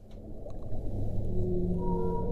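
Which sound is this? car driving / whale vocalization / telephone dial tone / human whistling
whale vocalization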